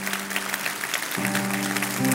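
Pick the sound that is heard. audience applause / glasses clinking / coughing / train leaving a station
audience applause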